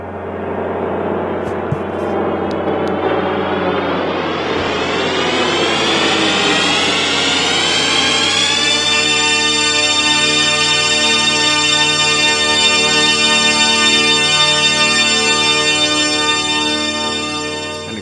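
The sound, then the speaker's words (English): The THX cinema logo sound: a loud, dense swirl of synthesized tones gliding and swelling over several seconds, then resolving into a huge sustained chord that drones powerfully to the end. “What's it called? The THX sound.”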